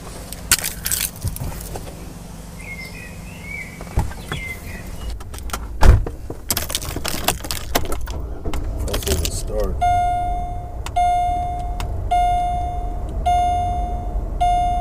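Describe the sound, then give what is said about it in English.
Keys are picked up and jingle and clink in a few quick bursts, followed by car door sounds and a steady, repeating electronic chime from a vehicle. “He thought he was going for a car ride. Got the keys.”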